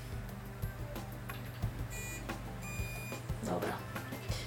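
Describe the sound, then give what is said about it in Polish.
A battery tester, its thin, long tip pressed to the convex end of a battery, gives two short, bright electronic beeps, rich in overtones, one after another over a steady low hum and background rustling. “I teraz jest kwestia taka, że im szybciej one grają, tym bateria jest faktycznie no. Yy, niewyczerpana, nowa do użytku.”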